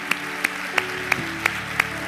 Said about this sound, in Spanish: cuántas vidas en esta mañana se han rendido a Cristo. Dale un fuerte aplauso.